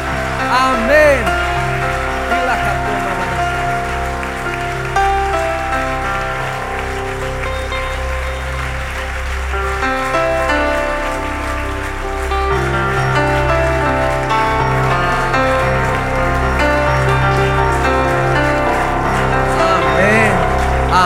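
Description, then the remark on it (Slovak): An audience applauds the Lord Jesus steadily for about twenty seconds, a dense, even patter of clapping blended with sustained musical tones and voices underneath. “Zatleskajme moc si nášmu pánu.”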